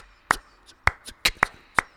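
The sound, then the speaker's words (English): Sharp hand claps, about five, at the end of a played recording, land in an uneven rhythmic pattern, crisp, with quiet between them and no one talking. “Um, the claps. They end up on the end.”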